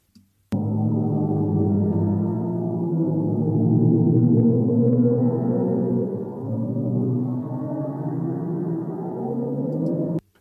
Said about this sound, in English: And NASA released um, audio of what they say a black hole sounds like.